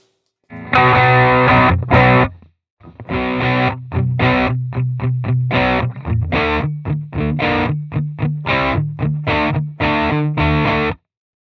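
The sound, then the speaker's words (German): Electric guitar played through an overdrive pedal: a gritty sustained chord rings out, then after a short pause a steady run of choppy, rhythmic distorted chords follows over a held low note, with no talking. “Also das war, da sprachen wir jetzt von einem Overdrive.”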